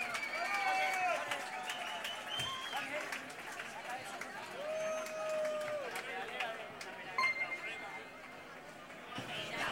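Sustained applause from a crowd at a live music show, welcoming a band to perform, a dense wash of clapping lasting several seconds with whistles and cheers rising above it, fairly loud.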